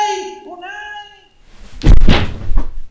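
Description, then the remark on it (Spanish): A wavering, meow-like tone gives way to a dull, heavy thud of a body falling onto cold earth, the head striking the ground, loud, followed by a brief rumbling scuffle. “Un golpe seco contra el suelo sacude mi cabeza y la fría tierra sonroja mi mejilla.”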